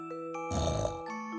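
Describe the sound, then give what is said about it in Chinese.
A single raspy, drawn-out snoring yawn from piglets waking up rises for about half a second, grunting and breathy, over steady sustained musical tones that continue before and after it. “小猪们打了个大大的哈欠，醒了过来。”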